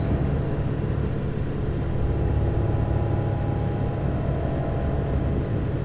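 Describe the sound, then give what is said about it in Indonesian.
A steady, low car engine rumble with road noise runs without a break, as if heard while driving along at an even pace; no one speaks. “Aku pun menyusulnya perlahan dari sebelah kanan.”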